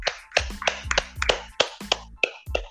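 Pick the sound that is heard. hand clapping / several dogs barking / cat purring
hand clapping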